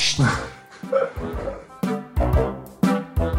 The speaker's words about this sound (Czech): Neslyšíš tohle? Slyším. Tak počkám. Já ji zavřu, já ji zavřu, to je, to je pes a já jdu zavřu.